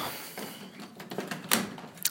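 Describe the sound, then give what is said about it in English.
A few sharp knocks on a door, irregularly spaced, with the loudest two near the end, heard fairly quietly against a faint background hiss. “Oh, the uh, the IRS is knocking at my door.”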